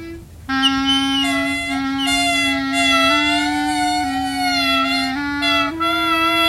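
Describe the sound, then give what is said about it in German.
Two loud, brassy horn-like calls from two Trötkehlchen birds blare over each other nonstop as they shout each other down, their droning tones stepping up and down in pitch, unbroken, with no one speaking. “Sie brüllen sich gegenseitig nieder, bis einer der beiden keine Lust mehr auf den Krach hat und dem anderen flugs ein Ei in den Schalltrichter legt.”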